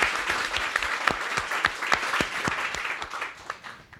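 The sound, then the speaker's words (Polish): A crowd applauds steadily to welcome guest Katarzyna Szymielewicz, a dense wash of many hands clapping with a few sharper individual claps standing out, fading slightly toward the end. No one speaks over it. “Drodzy Państwo, Katarzyna Szymielewicz, wielkie brawa, dobry wieczór.”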